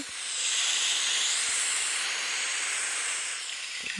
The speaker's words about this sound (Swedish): Men det, det jag skulle säga i alla fall om den här appen, för nu om man hör här kan man ställa in liksom olika sån här typ av ljud. Här kan man få en strand.